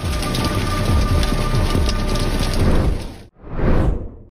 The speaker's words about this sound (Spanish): con muy pocos espacios para protegerse ante la lluvia, o en este caso, del granizo son imágenes que nos recuerdan el poder de la naturaleza y de lo frágiles que somos los seres humanos.